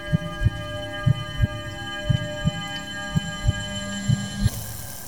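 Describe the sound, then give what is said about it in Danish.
A car's steady droning hum with regular low thudding pulses, roughly two per second, moderately quiet, with no one talking. “Der var lige, øh, lige lidt larm fra en bil, så, øh, så vi fortsætter nu her,”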